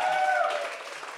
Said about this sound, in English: But. well, for many more up there's to come, round of applause. Yeah, yeah round of applause. Everyone.